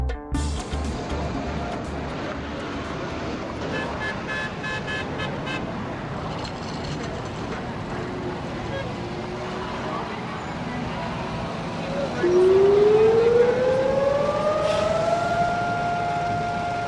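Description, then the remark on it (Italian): Street traffic hums and a few voices murmur, then a loud air-raid siren rises steadily from about twelve seconds and holds a sustained wail over the road noise, sounded in Israel for Holocaust Remembrance Day, held in April. “Con questa breve registrazione ho voluto farvi sentire come in Israele si ricorda l'Olocausto nel cosiddetto Olocausto Day o Holocaust Remembrance Day che viene fatto ad aprile attorno al 27”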